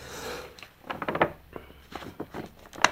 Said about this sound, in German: Ja, hier ist am meisten. Ich will nicht allzu viel hin und her blättern.